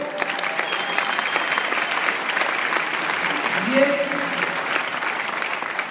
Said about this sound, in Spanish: Un aplauso, por favor.